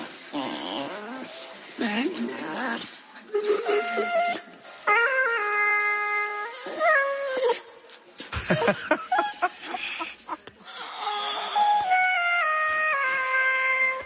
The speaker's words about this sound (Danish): Så skal du høre Maggie, når hun synger. Altså hunden synger igennem autotune.